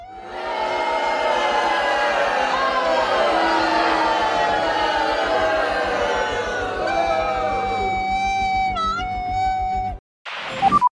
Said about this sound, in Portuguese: ficam as vaias para o erro grotesco do Lewis Hamilton